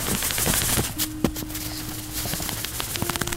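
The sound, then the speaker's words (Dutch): Quick, soft crunching steps of a dog pad through fresh snow, a light irregular patter of paws with a faint steady hum in the background. “En dit is het geluid van een hond die er doorloopt.”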